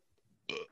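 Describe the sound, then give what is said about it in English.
A single short, loud burp erupts abruptly after a faint low rumble, ending quickly in a rough, throaty release. “excuse me. Bless you.”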